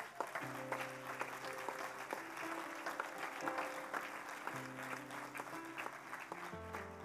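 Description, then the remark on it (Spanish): Hesitant, half-hearted applause: scattered clapping that keeps a steady, modest level over sustained low organ-like chords that shift a few times, with no voices. “Eso fue un amague de aplauso.”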